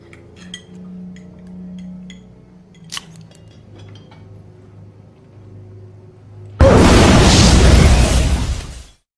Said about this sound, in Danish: Før braget, der dræber familien, ja, der har faderen udløst to håndgranater under spisebordet.